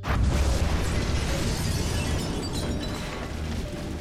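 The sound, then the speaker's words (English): A loud explosive crash bursts in at once as a destructive disc is hurled through the wall of a speakeasy, smashing a hole. A heavy rumbling roar follows, with crumbling, debris-like crackle that slowly fades over several seconds, with no voices. “and it hurls it through the wall, smashing a hole through the speakeasy”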